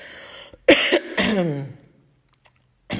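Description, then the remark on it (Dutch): Someone clears their throat because of a tickle in the throat, a couple of rough, gravelly bursts with a short pause between them, followed by a brief quiet and a faint start of another breathy sound. “is het een kriebeltje in mijn keel, hoor je dat?”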